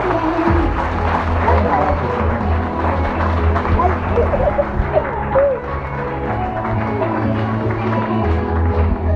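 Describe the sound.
A crowd applauds steadily for several seconds, a dense, loud wash of clapping with a low rumble and some voices mixed underneath.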